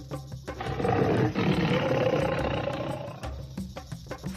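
A tiger lets out a long, loud, rumbling roar that swells for about three seconds, followed by a few shorter huffing growls, with no talking.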